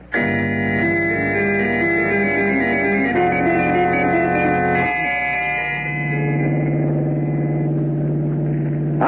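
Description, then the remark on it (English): A hired car drives along a rough road through desolate country in Montana, its engine holding a loud, steady droning hum that shifts pitch a couple of times as if changing gear, with no voices. “We fly to Helena, Montana, hire a car there, and drive the rest of the way.”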